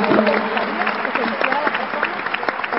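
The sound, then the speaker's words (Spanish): An audience claps steadily for a few seconds, a dense patter of many hands at an even loudness, with voices talking underneath the applause. “Venga el pues, aplauso.”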